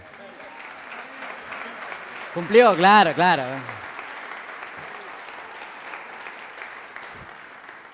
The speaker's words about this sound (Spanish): un fuerte aplauso.